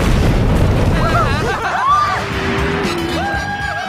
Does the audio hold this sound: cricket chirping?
no